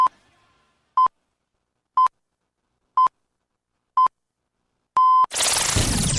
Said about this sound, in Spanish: Este es el primer sonido de la mañana. Este despertador suena bien.